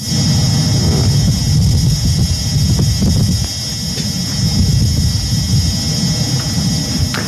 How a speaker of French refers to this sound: Mais cette fois-ci, on entend clairement le bruit strident du rover qui avance sur Mars.